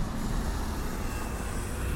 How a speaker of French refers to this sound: Euh, où sommes-nous Dans le bruit. Dans le bruit. On est euh, vraiment à côté d'un axe de circulation qui longe le canal.